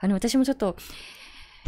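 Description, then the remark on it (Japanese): A woman speaks briefly, then a long, soft, breathy sniffle from someone overcome with emotion follows as air is drawn in through the nose, faint, ending with a short louder catch. “音声の中でこう鼻をってすする音が入ってしまっているんですけど、私たちもちょっとね、今もちょっと”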